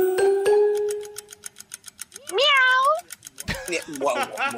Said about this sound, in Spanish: ¿Qué personaje de dibujos animados hace este sonido? ¡Miau!